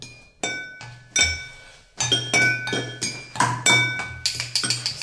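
A glass is clinked repeatedly, a series of bright ringing taps with a sustained shimmering tone, sparse at first and then quickening into a rapid run of strikes, fairly loud with no talking.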